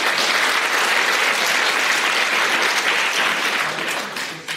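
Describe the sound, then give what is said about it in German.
Sustained applause from an audience, a dense steady patter of many hands clapping at once, loud, easing off slightly toward the end. “gibt so ein paar Sätze, die kriegen in jeder Veranstaltung Applaus, ist auch okay.”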